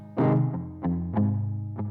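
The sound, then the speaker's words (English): A voice processed with a chorus effect, giving a thick, shimmering doubled tone across a few sustained notes that start with distinct bright onsets, fairly loud. “All right, so that was a little bit of chorus put in.”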